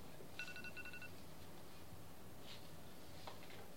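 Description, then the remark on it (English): A quick burst of electronic timer beeps, about half a dozen short, high-pitched tones in rapid succession, fairly soft against a low hum of background noise. “that is my timer, so I am ready.”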